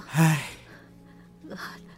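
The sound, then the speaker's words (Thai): Heavy, breathless panting: a loud voiced gasp followed by a second, softer heaving breath, like someone winded from running. “ตอนนี้เนี่ยกันทนวิ่งอีกไม่ได้นานนักแล้วนะ ไปไปเถอะเสียงหอบแฮกๆ”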